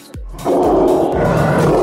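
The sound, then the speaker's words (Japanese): A lion cub lets out one loud, sustained roar, rough and throaty, rising abruptly after a short low rumble and holding steady to the end. “その子供のまだライオンなんですけれども、はいはい、ただなんですねただはい余剰動物っていう言い方が業界の中ではあるんですけれども”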